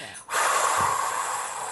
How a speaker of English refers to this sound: So with the kids, you can ask them, you know, when they breathe in, then have them pretend that they're that dragon breathing out that fire